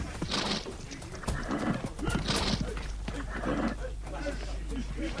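A horse whinnies in several loud, rising bursts while hooves clop unevenly beneath, over a constant rumbling background.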